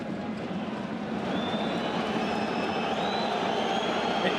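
A stadium crowd at a football match whistles in disapproval in the 55th minute, thin sustained whistles rising over a steady, loud roar of the crowd that grows slightly fuller after the first second.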